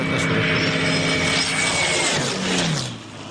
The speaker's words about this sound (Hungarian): Nem, ez egy légcsavaros. Valami nyilván valami túlra légcsavaros képet. Nem. ez, ez, valami, ez, egy csillag motoros. Soros, motor, ez kérlek szépen... Magassági kompresszor.